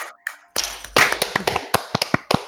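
Sharp, crisp claps come in a quick, slightly uneven burst, about a dozen over two seconds, like a few people applauding briefly. No one talks over them.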